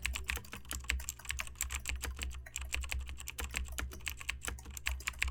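Rapid, steady clacking of keys on a mechanical keyboard, fairly loud, continuing throughout with no voices, over a low constant hum.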